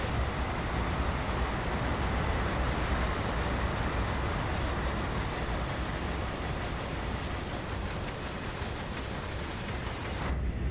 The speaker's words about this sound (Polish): Bardzo lubię ten widok tej kamery. W zasadzie mógłbym wysiąść z tego pociągu i on by sobie pojechał beze mnie to jest taka możliwość.